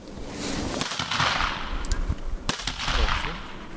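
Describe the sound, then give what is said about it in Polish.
Several sharp black powder gunshot cracks ring out at irregular intervals during a dog's retrieving test, a couple of strong reports near 1 and 2.5 seconds with smaller pops between, over a busy outdoor background. “Y, aportowanie, prosta czynność, prawie każdy pies to potrafi, ale tu podczas opartowania padają strzały z broni czarnoprochowej pies e, nie może zwrócić uwagi na te strzały.”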